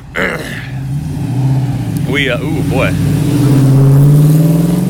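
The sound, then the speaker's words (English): A car engine revs loudly, its droning pitch rising and holding steady as it passes, while a man speaks briefly over the noise. “nice car.”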